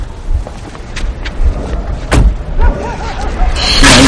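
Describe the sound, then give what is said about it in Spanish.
A car door slams shut with a single solid thud as someone gets out of the car, amid a few lighter clunks and a steady background rumble; a brief faint voice follows. “baja del coche.”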